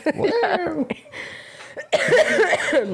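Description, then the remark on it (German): Loud coughing comes in two rough bursts separated by a brief quieter pause, each burst a rapid series of hacking coughs. “wenn ich das hätte schneiden müssen mit deinen alle das zwei Wörter husten.”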